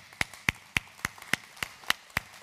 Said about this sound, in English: Can we bless our children with a hand clap as they go?